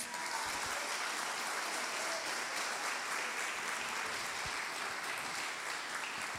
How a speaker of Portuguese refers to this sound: Louvado seja o nome do Senhor, aplauda Ele em nome de Jesus.